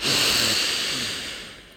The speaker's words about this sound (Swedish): Och vi tar ett till bara. Det är så himla härligt att andas Andas in.